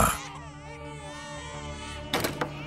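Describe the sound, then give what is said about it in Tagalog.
Several babies lying on a bed cry in a continuous, wavering wail that holds steady throughout, moderately loud, with a couple of short sharp noises near the end; their whole bodies are darkened and their eyes red. “Pagsilip namin, napaatras na lang kami nang makita ang ilang sanggol na nasa kama, umiiyak, nangingitim ang buong katawan at namumula ang mga mata.”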